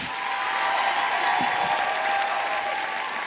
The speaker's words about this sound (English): Can everybody just say a huge uh, thank you, a big round of applause for the wonderful Tiff Stevenson? Bye, Tiff.